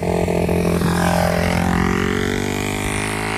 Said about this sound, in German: jetzt haben wir hier auf dem Land ein Motorrad